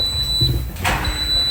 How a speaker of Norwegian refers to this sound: Fordi det her er lyden av en oppvaskmaskin som er ferdig.